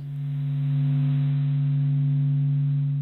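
A steady, droning low hum with a strong pure tone and a fainter one just above it, sustained evenly with faint upper overtones, eerie and unbroken throughout; a scientist's sonification of the sun's movement waves, loops and eruptions.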